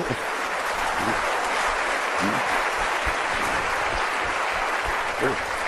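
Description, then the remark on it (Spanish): Steady, dense applause from an audience of about 400 people fills the whole stretch, a continuous crackling wash of many hands clapping at an even loudness, with a few faint voices mixed in underneath. “Un aplauso a todos ustedes, por favor, ¿sí?”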